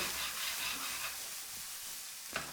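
Steady sizzling of onions and garlic frying in a pan, a broad hissing crackle throughout with a brief louder scrape or shuffle near the end as the pan is tossed rather than stirred.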